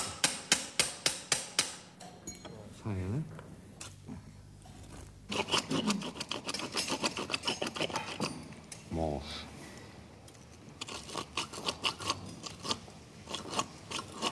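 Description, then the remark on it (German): Surgical reaming of bone for a hip prosthesis, drilled out until the prosthesis fits, in a petite woman with severe osteoporosis: bursts of harsh, rhythmic grinding and rasping strokes, fairly loud, with a few short spoken remarks between the bouts of tool noise. “Müssen wir aufbohren, so weit, bis die Prothese reingeht.”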